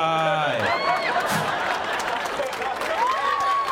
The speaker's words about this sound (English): Oh wow, yeah, uh, it's actually stereo applause at the end there. Yeah, that's definitely sweet.